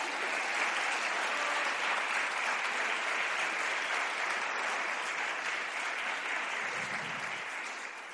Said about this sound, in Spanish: aplaudo tu valor. Bueno, todos aplaudimos tu valor.